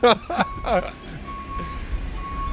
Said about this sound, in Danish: så han bakker ind der. Ja. Og der er to kammer i den skraldebil.